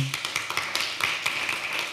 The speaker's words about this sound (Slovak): Takže potlesk pre našich hostí.